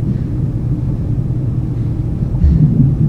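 vehicle, airplane cabin engine rumble

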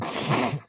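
human body sound, sneeze

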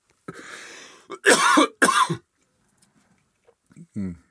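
human body sound, coughing and throat clearing

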